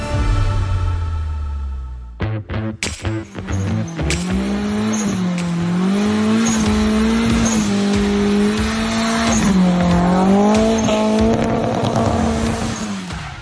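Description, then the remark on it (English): A 1995 Nissan 240SX's engine, putting about 320 to the wheels, revs hard and rises in pitch as the car accelerates, with tires squealing loudly and continuously over the motor's roar, intense throughout. “That was his 1995 Nissan 240SX, uh, pushing about 320 to the wheel.”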